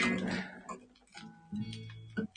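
Quick, light tapping of a pet cat scampering across the floor, irregular patters, with a faint tonal hum lingering underneath. The cat, let out of the room, is running around excitedly.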